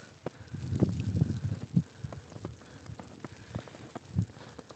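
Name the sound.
footsteps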